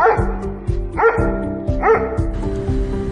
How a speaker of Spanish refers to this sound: Perdona, es que se acaban de colar unos perritos en la cabina.